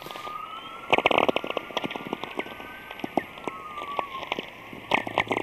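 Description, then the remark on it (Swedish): Northern lights recorded by Laine with a supersensitive microphone, the signal translated into frequencies humans can hear: irregular crackles and sharp pops over a faint steady whine, with clusters of louder clicks scattered through the quiet, static-like background. “Och det vi hör är en sorts dovt buller,”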